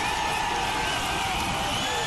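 A large crowd at Tiger Stadium roars in a steady, loud wash of cheering after a walk-off home run over the left field wall, holding without a break for the whole moment, dense like thousands of voices at once.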